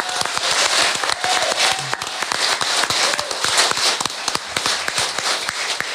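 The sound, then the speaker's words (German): A crowd applauds steadily for several seconds, a dense, continuous patter of many hands clapping at once, loud, with no voices standing out. “Applaus von uns mal.”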